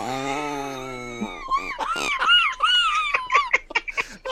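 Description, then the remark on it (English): A voice imitates a quacking fart: a long, held buzzy tone, then a run of wobbly, sputtering squawks, fairly loud, breaking into laughter-like bursts. “you know, the duck quack is more like a.”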